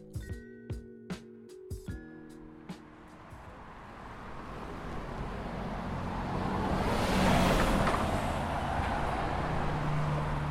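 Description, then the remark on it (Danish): Traffic on a busy road in Berlin, by Vassar station in the Frederikshavn district, with a vehicle's rushing roar swelling as it passes and then lingering. It is preceded by a few short ringing tonal beeps. “Og det eneste, vi skal gøre, det er at krydse den trafikerede vej, ned ad skorningen, og så er vi der.”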